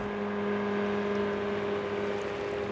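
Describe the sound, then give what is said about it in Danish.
A motorboat steered by a young man drones steadily on a long run out to an island in 35-degree heat: a constant humming engine tone over rushing noise that holds level throughout without pauses or changes in pitch. “Det, der gik op for mig undervejs, det var, at ham der, den unge fyr, som sejlede den der motorbåd, han var faktisk helt klar over, hvor den der ø, den lå henne.”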